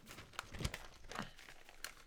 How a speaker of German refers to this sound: Warte, ich muss kurz blättern.